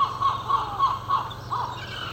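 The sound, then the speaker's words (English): A seagull squawks repeatedly in a steady series of harsh, bright calls, about six in two seconds, fairly loud over a low background hum. “And if any of you speak seagull or dog, which I imagine he's actually saying shut up yeah, let me know what they're saying.”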